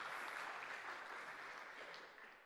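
A crowd claps steadily in a dense, crackling wash of applause that holds strong for a couple of seconds, then begins to thin and fade slightly toward the end.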